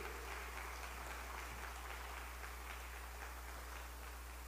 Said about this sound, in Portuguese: Glória a Deus. Dá uma salva de palmas ao nosso Rei.